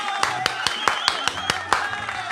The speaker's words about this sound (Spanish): Un aplauso, por favor, bravo.